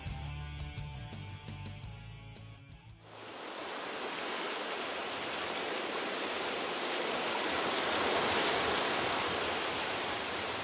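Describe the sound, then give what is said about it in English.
A short musical passage gives way to the steady, rushing roar of ocean waves breaking on the shore at Plymouth, a continuous wash that swells a little louder toward the end, with no voices. “Once again, I found myself in a place and time where the land ends and the sea begins.”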